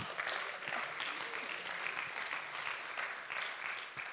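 An audience at a sermon applauds a helper called up to assist the preacher, clapping steadily for a few seconds, a dense, even wash of many hands with no voices standing out, holding a fairly constant loudness before easing slightly at the end.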